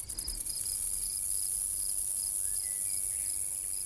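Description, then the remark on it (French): A dense, steady chorus of insects chirping in spring vegetation, countless tiny rattling trills layered together at high pitch, continuous, with no voices present. “on dirait que des milliers de hochets microscopiques s'agitent dans la végétation.”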